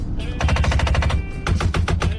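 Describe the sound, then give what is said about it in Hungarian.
Failing window actuators in a Japanese car rattle in rapid, harsh bursts, two long runs of sharp clacks about ten per second that sound much like machine-gun fire, with a low rumble underneath and no talking. “My window actuators are going out, so it sounds like I'm having a hell of a firefight in here.”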